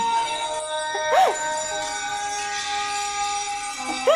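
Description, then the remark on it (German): A telephone rings with a sustained electronic, bell-like tone, steady and moderately loud, broken by two brief swooping chirps near the start and end of the ring. “Oh, jetzt schäle gerade noch das Telefon.”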